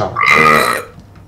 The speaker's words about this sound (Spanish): Lo siento. Compañero, ese eructo ¿no? será para siempre, imagino.